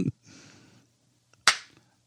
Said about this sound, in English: High five. It still echoes weird.